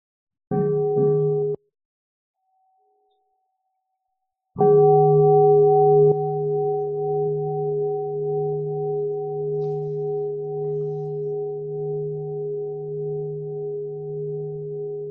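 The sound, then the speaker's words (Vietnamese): A meditation bell gets a brief, muffled tap, then after a pause a full strike that rings out loud and sustained, its deep tone slowly fading over many seconds. No voices. “trước khi xem xét thì xin cô tĩnh một tiếng chuông để mọi người”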